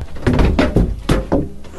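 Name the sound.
window being opened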